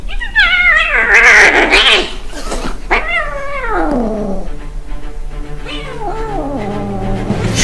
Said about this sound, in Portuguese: Lá está o grande miau!